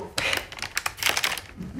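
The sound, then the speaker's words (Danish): Crisp crinkling and rustling of a white paper bag being handed over, in quick irregular bursts of crackle over about two seconds, with faint voices in the background. “Til jer, der ikke kan se, der kan jeg fortælle, at jeg lige nu har fragt Svend Aage Madsen en, øh, en hvid papirspose”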